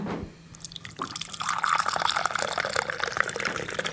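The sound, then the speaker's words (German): Coffee is poured into a cup, a steady liquid gurgle that starts after a brief pause and continues for a few seconds, its pitch rising slightly as the cup fills. “Hast du so ein Käffchen? Ganz gern. Ja, möchtest du auch? Ja, sehr gerne. Ich darf dir das mal so geben.”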